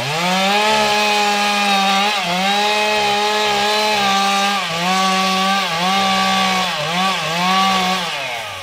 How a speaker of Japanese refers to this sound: ちょっとでもこう倒れていくとあの歯が挟まれちゃうので。ああ。サを入れて少し浮かしなあそうか傾いてくるとチェーンソーが噛まれちゃう木にそうすると抜けなくなっちゃうくさびを打ちながら